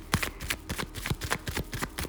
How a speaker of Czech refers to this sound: U mě padají karty z balíčka. Ano, zase ten mák. Eh, teď jsem zase zamíchala karty, zase mě vypadl z balíčka.